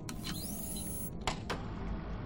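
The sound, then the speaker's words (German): A motorized projection screen extending: a steady electric motor whir with a thin, rising whine early on and a few sharp mechanical clicks along the way, with no voices. “zurück, damit wir die Leinwand ausfahren können.”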